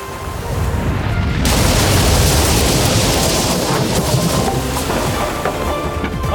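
A violent storm at sea: a loud, continuous roar of wind and crashing water, swelling sharply after the first second and staying dense and rumbling to the end, with no voices.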